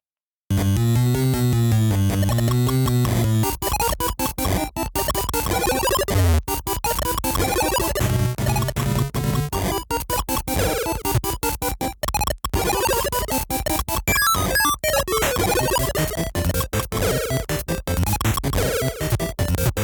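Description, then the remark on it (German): Loud, busy Game Boy game music from the first level plays alone, bright square-wave melodies over a bouncing bass line, peppered with sharp noise-burst percussion and chirpy effects throughout. “Und da fangen wir an mit der Gameboy-Version.”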